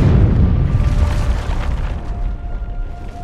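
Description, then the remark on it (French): A booby-trapped briefcase explodes in the cargo hold of an airliner about 45 minutes after takeoff from N'Djamena bound for Paris: a heavy, deep explosion booms at the start, then a loud low rumble rolls on and slowly fades, with a faint steady tone humming beneath it. “Environ trois quarts d'heure après le décollage, une mallette piégée explose dans la soute.”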